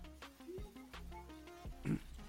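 Several short, nasal pig oinks and grunts come in quick succession, with a louder, rougher snort near the end over a low background hum.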